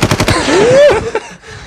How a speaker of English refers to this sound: Shots. Finished with a bang.